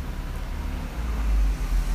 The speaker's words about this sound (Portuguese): E a gente, você pode estar no meio de uma cidade, ouvindo os carros e as motos passando.